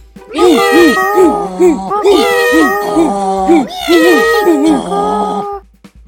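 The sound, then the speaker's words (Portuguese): A noisy chorus of farm animals, a donkey braying, a dog barking, a cat meowing and a rooster crowing, overlapping in three loud bursts with short gaps between them. “O burro relinchava, o cachorro latia, o gato miava e o galo cocoricava.”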